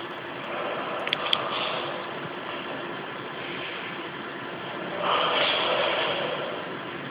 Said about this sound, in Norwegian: Og hun puster, og vi, uh, da avdekkes mer av ansiktet fordi stenene beveger seg. Og vi kan jo høre litt lyd fra dette, som også er lydspor i utstillingen.